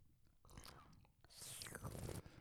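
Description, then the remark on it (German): Wet mouth noises, then a drawn-out airy slurp lasting about a second as wine is pulled in and slowly rolled over the tongue, with smacking and gurgling underneath. “Das soll man ja so machen, ne? Schlürfen, weinen. So über die Zunge rollen Echt lassen, das?”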